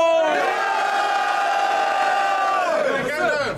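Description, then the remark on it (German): A crowd lets out a loud, sustained roar of cheering and shouting for Clockwork, a contestant from Nuremberg, that holds steady for about three seconds before breaking into scattered, falling yells. “Macht Lärm für Clockwork!”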